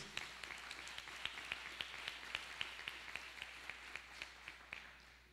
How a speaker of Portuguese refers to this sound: Aí vocês dão um aplauso para eu tomar uma água.